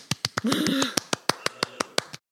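A dozen or so sharp hand claps in a steady, fairly quick rhythm, crisp, with a short burst of voice overlapping the first few claps.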